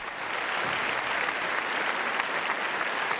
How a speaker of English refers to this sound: Please put your hands together and welcome the internet.